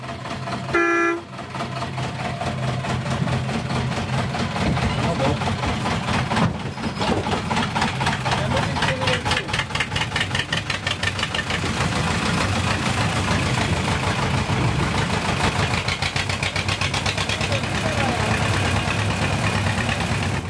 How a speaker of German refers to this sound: Es rumpelt und knattert und schaukelt. Langsam setzt sich die kleine Diesellok mit ihren drei Wagen in Bewegung. Klein ist sie wirklich, vielleicht zwei Meter hoch und damit nicht viel größer als der Lokführer.